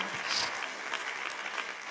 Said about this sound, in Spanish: En el nombre de Jesús, desen un aplauso.